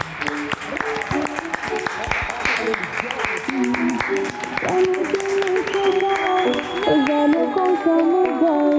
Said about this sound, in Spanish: Oye, chicos, salimos otra vez a aplaudir, que ya son las 8.